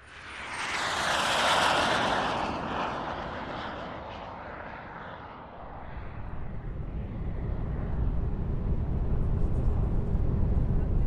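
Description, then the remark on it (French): Propeller engines of a Curtiss-Reid Skymaster airliner drone steadily in flight on 13 November 1950, carrying 58 Canadian pilgrims back from Rome, a loud continuous roar that swells early, eases briefly, then settles into a deeper, constant rumble with no voices. “À bord de l'avion, la plupart des passagers somnolent.”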